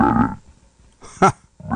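A frog croaks in low, droning calls, one at the start and another at the end, with a brief sharper burst in between. No one speaks.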